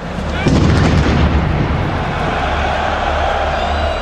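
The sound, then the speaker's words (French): A deep, heavy explosion booms out about half a second in, loud, then rumbles away beneath a steady wash of crowd noise from a packed stadium. It is a suicide bomber's explosive vest detonating near gate H of the stadium during a match, in the 13 November attacks. “Trois minutes plus tard, une autre détonation retentit.”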